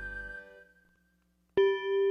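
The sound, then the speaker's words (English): A school bell rings out twice as school ends for the day: a clear, ringing tone fades away into a short silence, then a second loud strike sounds and rings on with bright, sustained overtones. “A bell rang. School was over.”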